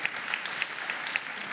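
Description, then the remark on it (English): A crowd applauds steadily, a dense patter of many hands clapping at moderate volume with a few sharper claps standing out, no voices over it, after a speaker announces the birth of his first child six weeks earlier. “You should really be applauding my wife.”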